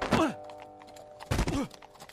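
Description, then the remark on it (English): Two heavy, dull thuds land about a second apart as a person falls off a horse and hits the ground hard, with faint scuffling and a low steady hum behind them. “You could break your neck falling off your horse like that.”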